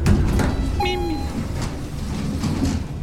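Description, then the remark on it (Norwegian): An elevator in a 74-storey building in Angola hums with a steady low mechanical rumble as it travels down, and a single short electronic chime rings out near the start while the doors slide open. “Jeg tok heisen ned.”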